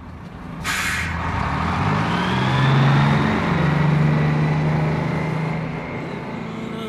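A bus bound for Busan rumbles at idle, lets out a sharp hiss of air brakes, then its engine revs up with a rising drone as it pulls away, steady with no talking.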